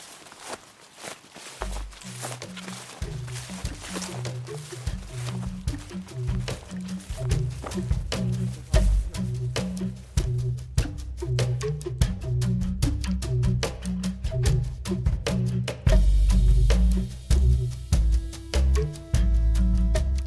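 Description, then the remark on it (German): Steady footsteps of people walking around the block, about 100 meters, at a regular pace, each step a soft thud, continuing for the whole stretch with faint outdoor ambience and occasional low bumps. “Ich würde gerne das Schrittgeräusch aufnehmen.”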